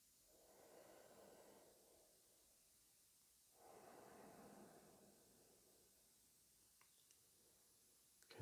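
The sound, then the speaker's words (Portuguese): Two slow, deep breaths in and out, each a soft airy rush lasting about two seconds, separated by quiet pauses. The breathing is gentle, with no talking, ending in a faint click. “Vamos respirar fundo. Sentir o ar entrar e sair.”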